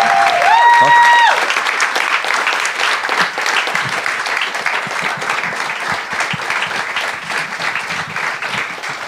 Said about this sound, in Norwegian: da syns jeg vi skal gi eh, Dongeri-gutta en fantastisk applaus for eh, all moro de har funnet på til nå. Tusen takk.